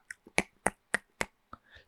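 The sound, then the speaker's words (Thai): A voice imitates a schoolchild clicking their tongue in class: a quick series of about six sharp, dry clicks at a steady, slightly uneven rhythm, fairly loud, with no talking around them. “แต่สักพักเดียวเท่านั้นครับ อยู่ดีๆ เขาก็ได้ยินเสียงเหมือนเด็กนักเรียนเดาะลิ้นน่ะ ผมไม่แน่ใจว่าใช้คำถูกไหม แต่ทำเสียงประมาณนี้ครับ”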